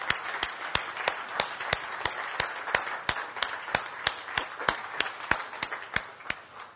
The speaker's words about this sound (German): Ähm, und ich möchte auch mal hinten dem Beamer-Dienst herzlich Danke sagen, weil die tun einen ganz, ganz wichtigen Dienst da hinten. Und vielleicht können wir denen auch mal einen kräftigen Applaus geben.